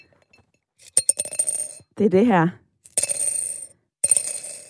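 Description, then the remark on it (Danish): Coins drop and clatter into a piggy bank, hitting the bottom, in three bright bursts of metallic clinks and rattles, with a short spoken phrase between the first and second bursts. “Det er mønter, der rammer bunden af en sparegris.”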